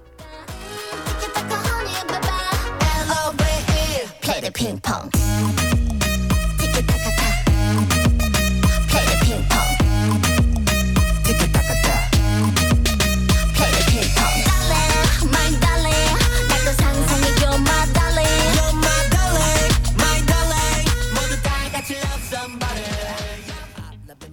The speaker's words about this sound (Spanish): han sacado una canción en pareja que se llama …, que está muy guay y suena así